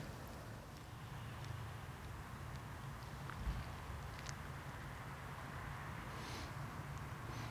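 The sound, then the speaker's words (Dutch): A steady, low rumble of traffic fills the background, a continuous faint wash of noise with no clear individual vehicles and no voices. “Dan horen we het geruis van het verkeer.”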